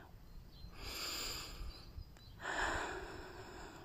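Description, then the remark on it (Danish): Two slow, deep, airy breaths drawn in through the nose during a guided breathing exercise, each a long hissing inhale lasting over a second, separated by a brief pause. No one speaks. “Du kan tage vejrtrækninger sammen med mig, eller du kan gøre det for dig selv og snuse ind med din næse.”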